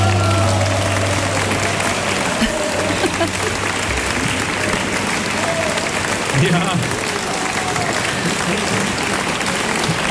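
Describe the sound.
Sustained applause from a concert audience, a dense steady wash of clapping that stays loud throughout, with a brief spoken word heard over it.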